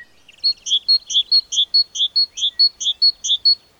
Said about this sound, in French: Ça, c'est une mésange bleue.